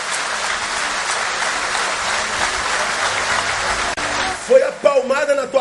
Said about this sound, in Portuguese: Então aplauda ele aí.